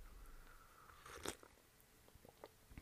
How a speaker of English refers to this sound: So, anyway, that's why I'm slurping on over here. Sorry if you hear my slurp.